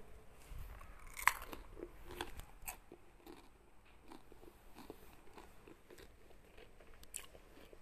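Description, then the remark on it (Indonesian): Crunchy food being bitten and chewed for ASMR, a sharp bite near the start followed by steady crackling chews and mouth sounds for several seconds, with no talking. “ngambil makanan denger ya kita ASMR”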